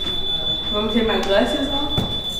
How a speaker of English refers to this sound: And there's the cliche sound of a metal detector, something you'll hear in a lot of schools where a majority of the students are poor and aren't white.